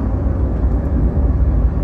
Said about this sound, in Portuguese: Por que um caminhão? Me, me, alguém é me explica, por que um caminhão anda na pista da esquerda, cara? Por quê? O que mais tem na BR é placa proibido os caminhões na pista da esquerda.